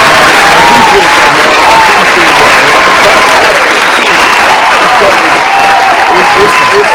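Loud, steady applause from many hands clapping at once, a dense continuous patter that holds at full strength for the whole stretch with no pauses.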